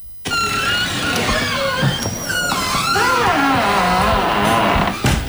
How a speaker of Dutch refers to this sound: Is dat hem, de deur? Dat was die deur, ja, inderdaad. Nou, dat klinkt indrukwekkend. Ja, het was een hele mooie, grote, houten, eikenhouten deur, zal ik maar zeggen.